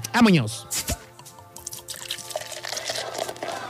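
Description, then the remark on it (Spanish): A voice imitates beer being poured and gulped down: a quick sliding vocal glide, then bubbly, dripping, liquid-like mouth sounds continuing softly for a few seconds, moderately loud. “Aquí en las fotografías, pero pues me hecho una, una cheve virtual”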